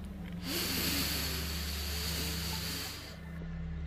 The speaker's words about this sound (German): Und beim Ausatmen schicken wir diese Kraft genau in unseren Körper an die Stelle, wo wir die Einsamkeit spüren. Wir atmen nochmal tief ein und spüren die Kraft aller Menschen, die gerade atmen.